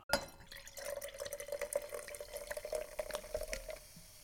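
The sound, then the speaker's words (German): Champagne pours steadily into a glass for about four seconds, a continuous splashing stream with a ringing glassy tone and fine fizzing crackle throughout. No voices. “Darauf ein Glas Champagner.”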